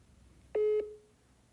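A single steady electronic telephone ringing tone sounds once, about a quarter second long and mid-pitched with a slight fading tail, followed by quiet line hiss with no voices and no answer.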